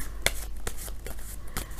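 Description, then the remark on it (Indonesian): Tarot cards being shuffled for a love reading for the sign Libra, heard as a handful of sharp, papery snaps and flicks at uneven intervals over a soft, steady background, with no one speaking. “Kartu yang keluar adalah universe ataupun semesta.”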